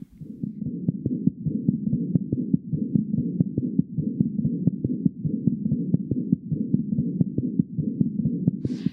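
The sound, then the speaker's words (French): A steady heartbeat heard through a stethoscope, low muffled thumps repeating in a quick even rhythm over a continuous rumbling background, fairly loud, with no talking. “Euh, je pense les premiers battements de cœur que j'ai entendus, c'était euh, j'avais un, stethoscope stéthoscope euh, à, la maison et puis j'écoutais ma sœur comme ça.”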